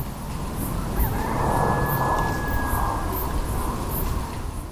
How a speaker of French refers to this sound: C'est léger, on l'entend pas bien, mais oui, c'est ça que j'ai entendu. Effectivement, ça ressemble à un coq, et il est pile à l'heure.